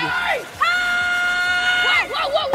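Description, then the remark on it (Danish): A woman lets out a loud, high-pitched excited scream, holding one steady shriek for over a second, with shorter wavering yells just before and after. “Skriger hun ellers bare alt, hvad, der, hvad hun overhovedet kan.”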